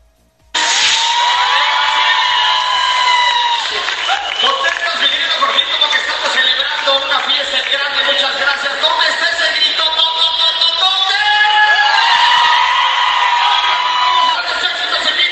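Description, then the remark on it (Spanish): A large crowd cheers and screams loudly at a concert, many voices whooping together in a sustained roar that swells again near the end, applauding a vocalist and his tropical music group as they close the event. “que arrancó los aplausos de la noche.”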